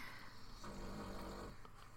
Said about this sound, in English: that's the dog snoring, if anyone heard that.